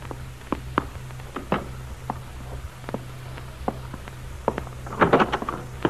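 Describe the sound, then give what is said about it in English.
Someone comes in through a door at about 10 o'clock at night: scattered soft thuds and footsteps, then a brief cluster of clattering knocks near the end, over a steady low hum. “I thought I heard you come in.”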